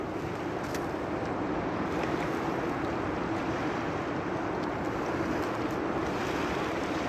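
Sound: ocean waves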